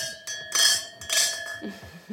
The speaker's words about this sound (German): Und jetzt wollen wir noch anstoßen. Ja. Ne? Prost. Zum Wohl.